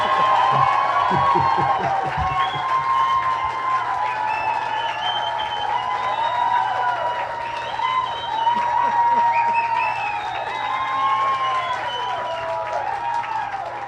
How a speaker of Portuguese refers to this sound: Para nossa alegria e satisfação, vamos receber aqui no ambiente a magnífica Léo Áquila para o aplauso.